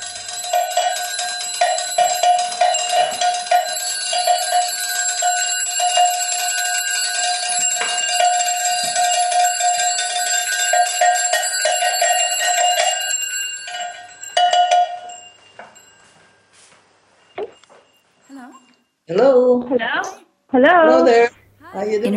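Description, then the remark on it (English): Bells ring steadily together for about fifteen seconds, a dense, shimmering wash of sustained overlapping tones, from the piece Daily Bell 2008, Leap Day, Barcelona, then fade out before a voice begins speaking near the end. “An invitation to join in the ringing of bells at sunrise and sunset every day to remember and to celebrate.”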